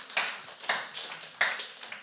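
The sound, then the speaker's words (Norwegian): An audience claps softly and unevenly for about two seconds, with sharp bright slaps swelling in a few louder bursts among scattered quieter claps. No voices are heard. “Dere kan klappe.”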